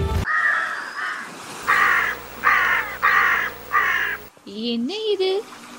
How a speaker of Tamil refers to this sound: காக்கைகளின் சத்தம் அதிகமாக உள்ளது என்று யோசிக்கிறீர்களா நாம் இப்போது காக்கைதீவு கிராமத்திற்கு தான் வந்திருக்கிறோம்